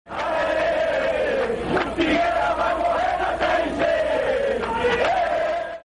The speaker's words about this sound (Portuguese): A torcida soltou o grito de É campeão, seguido de Arerê, o Figueira vai morrer na Série C.